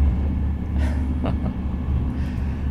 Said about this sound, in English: Uh, for this episode, you had the music of the train.